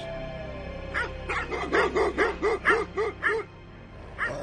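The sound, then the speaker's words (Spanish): A rabid dog barks in a quick, steady run of about eight sharp barks, followed by a pause and one more bark, with no talking. “¿Qué pasa cuando sueñas con un perro rabioso?”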